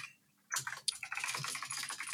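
Rapid typing on a computer keyboard, a dense stream of quick clicking keystrokes starting after a brief pause, moderately loud with no voices.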